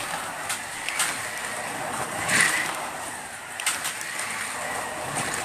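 Electric Carrera Go toy slot cars race around a track, a steady high-pitched whirring buzz with a few sharp clicks and rattles as they pass, continuous throughout.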